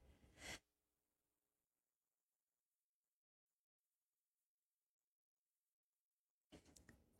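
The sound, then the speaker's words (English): A single short, sharp sneeze, followed by several seconds of silence and then a few faint, brief rustling sounds. “I had to sneeze.”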